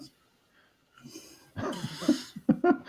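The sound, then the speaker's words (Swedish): After a near-silent start, a person with a violent pollen allergy sniffles several times, short wet nasal sniffs and snorty breaths coming in quick irregular bursts. “Nej, jag har en våldsam pollenallergi. Ja, det lät som du började snyfta precis när jag började prata om, när jag fortsatte prata.”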